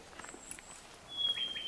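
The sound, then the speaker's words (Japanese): A Ryukyu robin (akahige), a small red bird with a white belly about the size of a sparrow, sings in a quiet forest on Amami: a thin, high whistle, then a longer, steadier whistled note that grows somewhat louder, heard alone. “今のが赤ひげ赤はい、今の時期の一番代表的な鳥です。”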